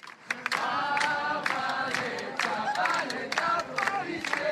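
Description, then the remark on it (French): A large protest crowd chants loudly in unison, many voices shouting feminist and anti-police slogans together with a steady, rhythmic cadence, punctuated by sharp bursts like claps or shouts, continuous throughout. The demonstration supports a woman fined for walking topless and takes place on the margins of a street theatre festival. “En marge du festival du théâtre de rue, la foule s'est réunie au son de chants féministes et anti-police.”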